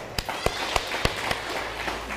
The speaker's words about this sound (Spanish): Aplausos.